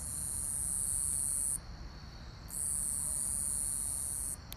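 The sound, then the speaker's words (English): A common conehead katydid gives a loud, continuous high-pitched buzz in two long bursts, broken by a brief pause, over a low background rumble with no one speaking. “so hopefully you can hear that it's just like a buzzing sound here is another one”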